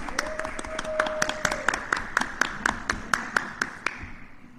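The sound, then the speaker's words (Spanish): Sparse audience applause for a theater actress and teacher being introduced, with sharp, evenly spaced claps over a steady background hum, loud at first, then fading out toward the end. “Un aplauso para la maestra”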